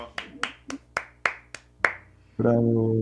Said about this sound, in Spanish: ya estamos seis y tengo que mencionar una cosa. Rompimos el récord. Un aplauso.